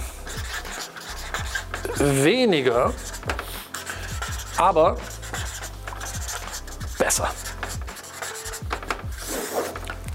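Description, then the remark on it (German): Scratchy strokes of a pen writing by hand on paper, with quick rasping bursts and short pauses throughout, while a person speaks briefly over the scribbling. “und das ist der Schlüssel, lass mich das mal hinschreiben,”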